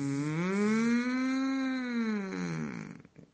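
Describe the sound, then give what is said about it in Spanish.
A single long, drawn-out moo made by a human voice imitating a cow, a steady humming tone that rises slightly, holds for about three seconds, then fades. It is fairly loud, with nothing else around it. “mugió la vaca y tuvo una idea vacuna.”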